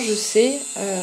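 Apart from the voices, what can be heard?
tattoo machine buzzing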